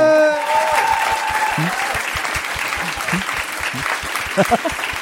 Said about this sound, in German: einen riesen Applaus